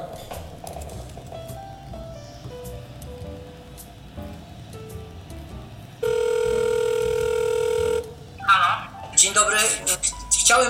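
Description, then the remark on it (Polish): A telephone rings on a call: one steady, buzzing ring tone lasting about two seconds, loud against a soft stepping melody before it, followed by a voice speaking over the line. “Kiedy się tam dzwoni?”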